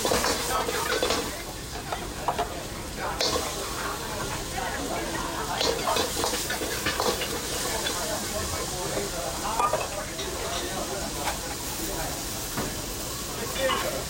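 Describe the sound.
Eggs, wood ear mushrooms and other vegetables stir-fried in a large iron wok at a neighborhood Chinese restaurant, seen over the counter: steady, loud sizzling and hissing with scraping stir strokes and clanks throughout, with faint background voices.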